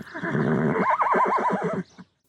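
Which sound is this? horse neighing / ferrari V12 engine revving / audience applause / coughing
horse neighing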